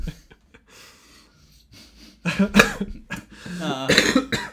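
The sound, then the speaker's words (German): A loud fit of harsh, rasping coughs erupts after a few quiet breaths, several bursts tumbling together with a strained throat-clearing quality and a short vocal groan mixed in. “das habe ich verdient, den Huster.”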